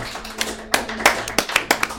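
Scattered hand claps ring out in an uneven rhythm as a clap offering, about six or seven sharp slaps over two seconds, moderately loud, with no one talking.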